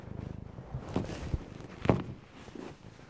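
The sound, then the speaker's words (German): A domestic cat purrs softly in a steady low rumble at the start, followed by a few light thumps and rustles as it shifts about. “Ja, er hat die ganze Zeit nur rumgeschnurrt.”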